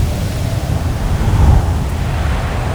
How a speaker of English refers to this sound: this is what they're facing. This is what it talks about a gale of wind, fierce wind, and can do this.